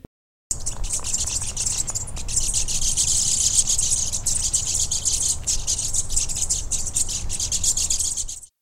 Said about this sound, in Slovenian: Tako se sliši, recimo, jata ptičev, ki, ki se odziva na plenilca.